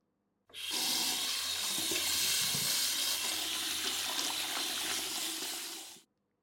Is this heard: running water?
yes